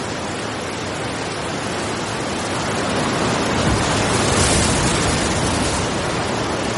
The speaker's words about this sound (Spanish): Las olas rompen con fuerza sobre la poca arena húmeda que queda en el entrante del acantilado.